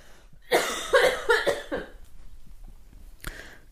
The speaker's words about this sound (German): Ich muss ganz kurz ganz laut husten, warte.